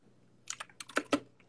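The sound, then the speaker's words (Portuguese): Loud, rapid computer keyboard typing as someone finishes writing, a quick burst of about seven sharp clacks in an uneven rhythm, the last two keystrokes hitting hardest, over a faint low hum. “Barulhão do teclado.”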